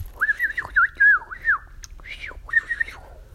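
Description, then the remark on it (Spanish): A warbling, birdlike whistle runs through a few short melodic phrases with quick trills and slides, fairly clear, with no talking. “Hace muchos años los pájaros tenían su propio idioma y todo el mundo lo entendía, pero hoy este suena apenas como un gorjeo, un silbido y en algunos casos parece una música sin palabras.”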